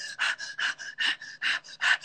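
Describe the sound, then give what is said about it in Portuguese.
Rapid, panting breaths imitated by a voice, showing how people hyperventilate when going into the cold, about five quick in-out cycles in two seconds, fairly loud, with a breathy, hissing texture and no words. “hiperventila.”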